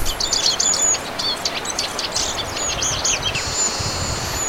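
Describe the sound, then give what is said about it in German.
A Eurasian siskin sings a rapid, continuous twittering song of chirps and trills, ending in a drawn-out wheezy note, over steady low outdoor background noise. “im Winter kann man hier mehr Ehrenzeisige gesehen in unserer Gegend als im Sommer”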